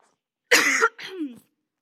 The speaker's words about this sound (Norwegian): Jeg håper ikke dere bare kommer til å huske hostinga etter denne talen.